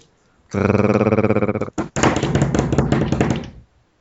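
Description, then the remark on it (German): A drum roll tapped on a table: a fast, even run of loud knocks, a brief pause, then a second busier burst of rapid tapping before it stops abruptly. “Trommelwirbel.”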